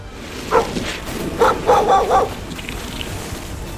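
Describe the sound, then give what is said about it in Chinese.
Sled dogs pulling a dog sled bark in a short burst of high, sharp yips: one alone, then four in quick succession, moderately loud over a steady background hiss. “于是，企鹅军团们立刻往南方狂奔，搭乘了狗雪橇。”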